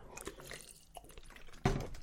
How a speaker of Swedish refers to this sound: Jag drack vatten